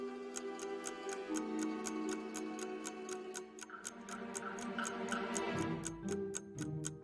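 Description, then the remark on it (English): A wall clock ticks steadily and briskly, roughly three crisp ticks per second, layered over a sustained, droning musical backdrop with no talking. “shocked and paranoid, the other man can't stop staring at the clock on the wall.”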